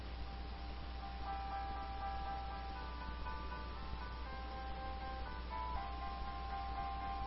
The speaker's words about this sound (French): Mais lui, quand il s'installe sur le tabouret, il commence à placer ses doigts. Et, là, il commence à jouer chopstick. vous savez, c'est quoi chopstick? Écoutez bien ça.